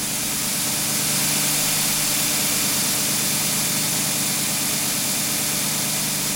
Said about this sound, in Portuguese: O dono da oficina, por seu lado, ainda não me viu, nem me ouviu. O barulho da máquina a lixar e os abafadores nos ouvidos não deixam.